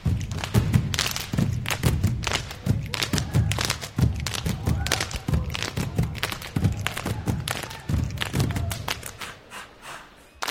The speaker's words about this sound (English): Black Grace is performing a piece based on the traditional ideas of Samoan slap dancing. Dancers make sky high jumps and quick turns to create complex rhythms of floor stomping, cries, and body slaps.